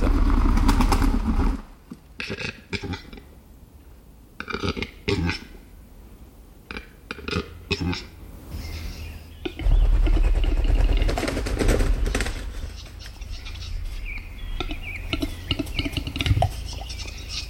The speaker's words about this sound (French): Alors, est-ce que ce grand tétra a fait ce bruit-là, comme on va l'entendre tout de suite